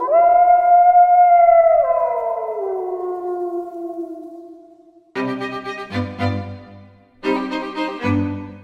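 A wolf lets out a long, loud howl that slowly sinks in pitch and fades over about five seconds, followed by a few short, rough, tonal bursts.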